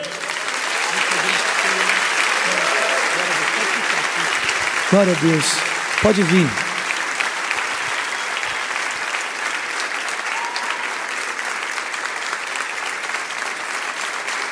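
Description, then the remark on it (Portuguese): Sustained applause from a large crowd fills the space, steady and dense throughout, while a man's voice speaks briefly over it around the middle. “Vamos aplaudir esse pessoal.”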